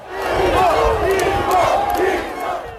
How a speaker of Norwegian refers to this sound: Legende, legende, roper Bolsonaros trofaste velgere.